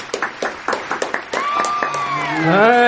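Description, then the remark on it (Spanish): A short burst of applause from a few people on the radio program Buena Vibra, welcoming a new participant: sharp, uneven hand claps, then a long, loud cheering whoop that glides upward in pitch over the last clapping. “Unos aplausos para recibir”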